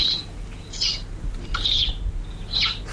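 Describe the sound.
A person imitates a sparrow's call, made like an inward kiss, with four bright, high chirps, evenly spaced about a second apart, clear over a faint low rumble, with no talking.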